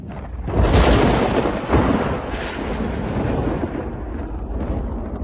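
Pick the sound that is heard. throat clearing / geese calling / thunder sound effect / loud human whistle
thunder sound effect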